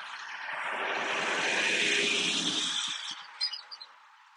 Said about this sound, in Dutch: Nou, ik wacht heel even Want er komt een vrachtwagen van de Friesland Campina langs. Eh, ik ben op vakantie in Drenthe.